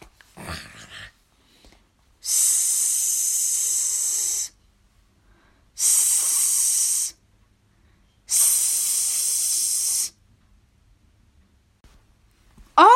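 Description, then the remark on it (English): Three loud, steady bursts of high-pitched hissing from an aerosol can of "invisible spray", each lasting one to two seconds, separated by short silent pauses, with a few faint rustles before and after. “Invisible spray. Shake, shake, shake.”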